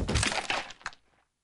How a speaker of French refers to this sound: Elle avale la soupe, puis elle s'essuie les moustaches et saute de la petite chaise qui tombe par terre et se casse.